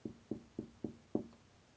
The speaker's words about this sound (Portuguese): Depois voltou para casa e estava contando a sua esposa sobre a garça quando alguém bateu à porta.